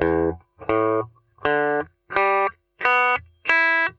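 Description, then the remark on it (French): Six open strings of an electric guitar in standard tuning (E A D G B E), plucked one at a time from lowest to highest, each note ringing briefly with a bright, distorted tone and no voices. “Donc, l'accordage standard d'une guitare, ça donnerait ça mi la ré sol si mi.”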